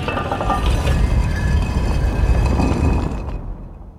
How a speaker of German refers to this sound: In der Wand öffnet sich eine versteckte Tür.